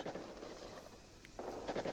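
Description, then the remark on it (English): Gunfire in a scene from a 1964 film crackles through a hissy, noisy background, with a few irregular bursts of shots rather than one clean bang, fairly muffled and not loud. “There's gunshots.”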